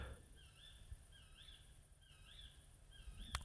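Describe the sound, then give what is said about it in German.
A bird repeats a short, rising-and-falling whistled call about four times at a steady, unhurried pace, fairly soft over a low outdoor rumble, with no one speaking. “Der Vogel ist wieder da. Ja, der sitzt mir gegenüber.”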